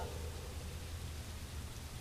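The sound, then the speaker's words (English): Steady, even rain hisses without a break, a dense wash of falling drops with no distinct patter, constant throughout, with no voices. “You thought you would brave the rain and walk back into town, but you were soon frozen to the bone.”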